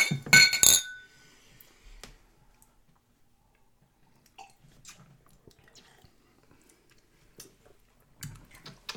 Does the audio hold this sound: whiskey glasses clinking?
yes